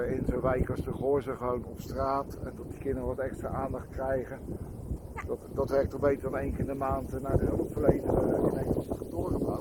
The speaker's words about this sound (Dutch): we hebben deze keer een beetje last van de wind. Dus je zal wel denken, goh, uh, waar lopen ze nu elke keer? Van de Dwarsstraat naar het Wilhelminaplein.